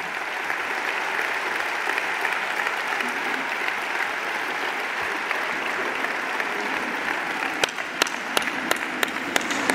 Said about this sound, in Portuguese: Aplauso eh, maior para António Costa, com o Congresso a levantar-se e também António Costa a erguer o punho esquerdo, o símbolo eh, do Partido Socialista.